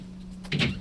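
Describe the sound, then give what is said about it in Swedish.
A short metallic rattle and clunk as a man tries to open the locked door of a fire station, heard once near the end over a steady low hum. “Han tar ett djupt andetag och öppnar dörren.”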